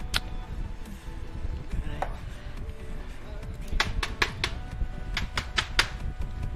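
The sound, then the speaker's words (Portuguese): Rice grains rattle and tick onto computer keyboard keys as they spill out: scattered sharp clicks, then quick clustered bursts of tapping near the end, over a low steady background hiss. “Dentro disso aqui é arroz. Ó. É arroz. É arroz, ó. Ó, arroz. Arroz. Sujou meu teclado tudo aqui, ó.”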